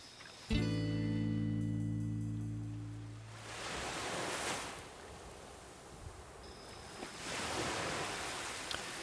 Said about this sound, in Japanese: えーと、と現在バックに流れてる音声はこれは波の音です。